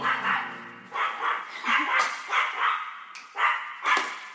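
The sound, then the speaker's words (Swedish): A small female dog barks loudly and insistently, a rapid run of sharp yaps with brief gaps between them, with no talking. “Alltså hon låter som en monsterhund men hon är, hon är så jävla liten.”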